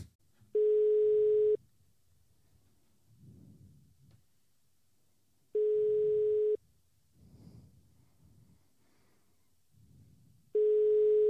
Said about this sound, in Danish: Han tager simpelthen ikke telefonen?